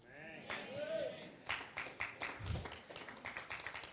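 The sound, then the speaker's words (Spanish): A crowd bursts into applause, steady overlapping clapping building after a moment, with raised voices and cheers mixed in over the sound. “Denle un aplauso fuerte si usted lo cree.”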